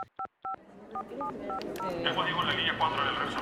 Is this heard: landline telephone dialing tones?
yes